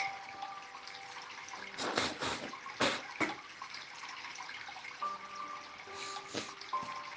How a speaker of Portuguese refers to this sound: Aí você acompanha, resolve acompanhar a água do riacho.